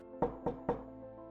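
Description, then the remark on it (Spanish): Three evenly spaced knocks on the wooden door of a very poor-looking house, moderately loud, with a soft low hum lingering underneath and no voices. “Tras caminar algunos metros llegaron hasta la puerta de esa casa, que por cierto se veía muy pobre, no tenía absolutamente nada, y tocaron a la puerta.”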